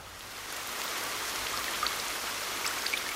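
Steady rain falls throughout, a dense wash of hiss with scattered sharper drops pattering on a surface, even in level, with no voices.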